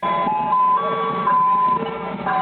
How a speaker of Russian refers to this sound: Вот это, например, звук э, такого э, фургона с мороженым. Я вообще не знал, что он издает такие громкие звуки.